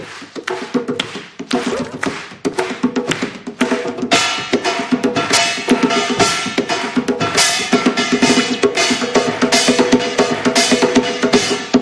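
A Korean buk drum played alone as a short solo performance, in a quick, steady rhythm: dense booming and cracking strikes that stay loud and busy throughout, with no voices.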